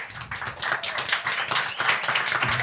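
A live audience applauds steadily, many overlapping claps forming a dense, sustained patter at fairly even loudness, with no voices standing out above it.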